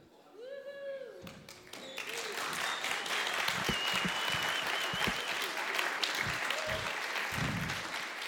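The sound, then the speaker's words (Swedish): A church audience bursts into sustained, dense applause as a standing ovation, rising quickly after a brief spoken voice at the start and continuing steadily at full volume through the end. “Tackar er för den stående ovationen.”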